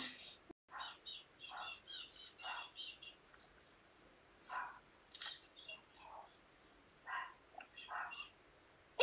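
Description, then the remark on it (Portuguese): Birds chirp and twitter repeatedly in short, bright bursts throughout in the sertão, a lively chorus of calls with no talking. “passarinho aí também?”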